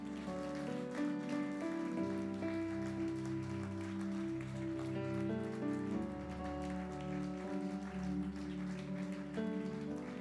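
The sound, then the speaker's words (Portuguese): A church audience applauds Jesus loudly, a dense, steady wash of clapping lasting the whole time, with sustained instrumental chords playing underneath and shifting every few seconds. “Você pode aplaudir Jesus bem forte, então?”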